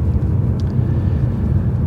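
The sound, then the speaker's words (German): Steady, deep road rumble from inside a moving car on a North Frisian country road in Germany, a constant low drone of engine and tyres on the road with no voices. “Ich merke fast gar nicht den, die Straßenschäden hier auf der nordfriesischen Landstraße.”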